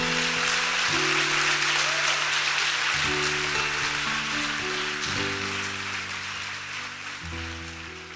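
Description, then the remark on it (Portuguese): A church audience applauds God in a steady, dense wash of clapping that holds for the whole stretch, with sustained keyboard chords underneath shifting every couple of seconds. “Aplauda ele por causa disso.”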